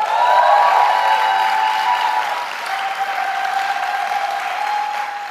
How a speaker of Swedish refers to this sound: Kan jag typ bara ge henne en stor applåd?